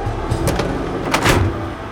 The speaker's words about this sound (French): L'avion ferme ses portes.